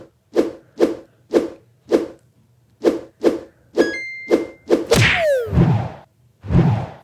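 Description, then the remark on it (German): Flappy Bird mobile game sound effects, played on an iPhone: a steady run of quick, swishy flap sounds, a short bright chime partway through, then a sharp smack followed by a descending whoosh and two more swishes. No talking. “Achso, man hört jetzt den Sound auch.”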